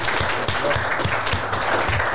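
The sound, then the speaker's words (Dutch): An audience applauds two guests to thank them for coming and for their contribution, many hands clapping in a dense, even wash of sound that stays loud and continuous throughout, with no voices standing out. “Ja, dames en heren, geef ze, geef ze een applaus.”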